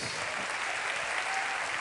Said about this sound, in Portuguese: Can we give Jesus a hand of praise? E nós podemos aplaudir ao Senhor juntos.